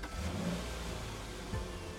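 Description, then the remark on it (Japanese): A car parked in a parking lot has its engine started with a key taken from the glove box; the engine runs at a steady low rumble, with a brief rev swelling up around the middle before settling back to idle. Fairly loud, with no voices. “鍵はかかっていないそれに乗り込んだ有利はグローブボックスを開いてそこに格納されていた鍵を取り出しエンジンをかけた”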